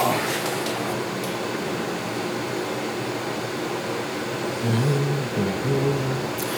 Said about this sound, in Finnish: on toisaalta hyvä lopetus, jos vaan kuunnelee tuota vedenkeittimän ääntä.